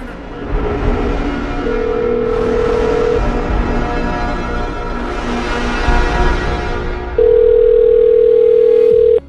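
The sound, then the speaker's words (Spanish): A telephone ringing tone sounds twice as long, steady electronic beeps, the second louder, over a constant low rumble like a car engine; no one speaks. “hijo de puta me está llamando por teléfono.”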